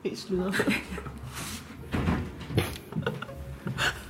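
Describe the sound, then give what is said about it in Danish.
A door is pushed partly shut during a Korea-themed evening gathering, amid a few soft knocks and rattles, moderately loud, with people murmuring and shifting around it. “Ja, måske skal vi lige lukke døren lidt.”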